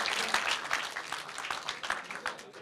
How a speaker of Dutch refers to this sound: Dus ik stel voor dat we allemaal even klappen voor jullie.